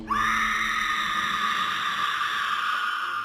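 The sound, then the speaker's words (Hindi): A woman's loud, piercing, bloodcurdling scream rises sharply and holds steady at a high pitch for a few seconds, shrill and sustained, with no talking around it. “मल्लिका एक रूह को कपकपा देने वाली आवाज में जोरों से चीखती है”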